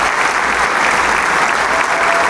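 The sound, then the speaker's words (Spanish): A large audience applauds steadily in the Teatro Isauro Medicinal after a performance of Beethoven's Ninth Symphony, honoring the choirs, their directors and the soloists; a dense, continuous wash of clapping that stays loud and even throughout with no voices standing out. “el mar de aplausos.”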